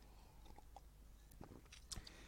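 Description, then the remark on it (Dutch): A quick sip of water taken at the mic: soft wet mouth clicks and a gulp, with a sharper smack near the end, quiet and with no talking. “even een slokje water tussendoor”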